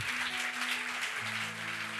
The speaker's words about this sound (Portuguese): É por isso que Deus diz, pode aplaudi-lo.